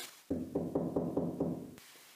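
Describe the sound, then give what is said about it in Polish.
A quick series of about six knocks on a door, evenly spaced and fairly loud, with dull woody thuds and no voices around them. “Puka?”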